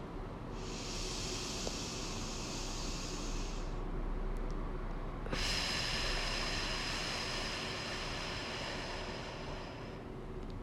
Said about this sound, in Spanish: Vamos a hacer cinco respiraciones. Y quiero que inhales muy, muy fuerte por la nariz y cuando exhales botes por la boca. Yo lo voy a hacer ahora, pero tú puedes ir respirando a tu propio ritmo.